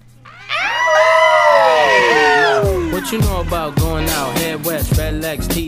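A group of voices lets out a loud shout together, a long sustained cheer that breaks into a run of rhythmic, chant-like yells.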